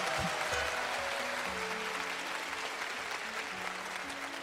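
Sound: loud round of applause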